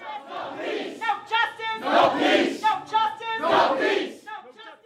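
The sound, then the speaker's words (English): A protest crowd of loved ones who have marched into police headquarters chants loudly at officers behind glass, in rhythmic bursts, many voices shouting together in repeated phrases with brief dips between them, some higher voices standing out above the mass of sound. “When he died, Devon's loved ones demanded answers by marching into police headquarters. They raised their fists at the officers they could see behind the glass and chanted at them.”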